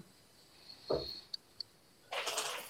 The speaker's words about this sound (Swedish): Så, jag stänger dörrarna till barn och annat.